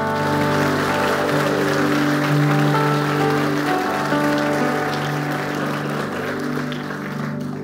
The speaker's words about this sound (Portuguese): Quantos creem nisso? Um aplauso ao Rei da Glória.